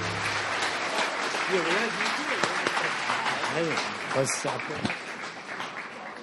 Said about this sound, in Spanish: aplauso al Señor.